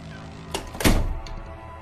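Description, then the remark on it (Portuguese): Someone closes a door behind them: it swings shut with a solid, heavy thunk, preceded by a brief rattle of the latch, then a short resonant tail. Fairly loud, no voices. “Fechei a porta atrás de mim.”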